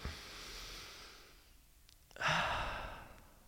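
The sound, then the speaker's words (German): A long, airy inhale through the nose, a brief pause, then a louder, breathy exhale like a sigh, with no talking; a deep breath taken with eyes open and a smiling facial expression. “Und jetzt macht mal Augen auf, lächelnden Gesichtsausdruck und nehmt jetzt mal einen tiefen Atemzug ein.”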